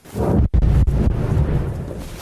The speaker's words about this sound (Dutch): Want in Kiev zijn weer explosies gehoord. Volgens journalisten is het luchtalarm afgegaan en gaat het om meerdere zware ontploffingen.